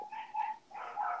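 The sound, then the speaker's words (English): A dog barks twice in quick succession, each bark drawn out and slightly whiny, with no talking over it. “you can definitely hear the dog.”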